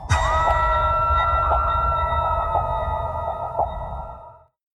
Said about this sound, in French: Le chant du loup, c'est un, signal qu'un sous-marin émet lorsqu'il rencontre un autre sous-marin.